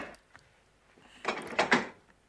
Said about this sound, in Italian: Ecco qua, tavolo ribaltabile. Tac